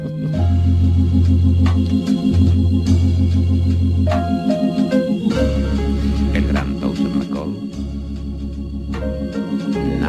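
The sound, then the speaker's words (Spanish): A soft, mellow farewell song plays steadily on the radio, with sustained bass notes under layered melodic tones, fairly loud with no talking over it. “Eh, vamos a, la canción de despedida”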